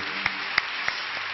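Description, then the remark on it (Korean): A church audience applauding together to give glory to God after a prayer, a steady dense crackle of many hands clapping, with a few sharper claps standing out from the crowd. No one speaks. “우리에게 승리를 주시는 하나님께 영광의 박수 올려드리겠습니다.”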